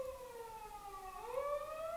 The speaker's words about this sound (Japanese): ピーポーがすごい